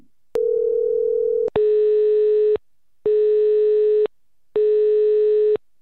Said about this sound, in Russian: Так, ну, пока, пока гудки. Волнительные гудки. Волнительный момент.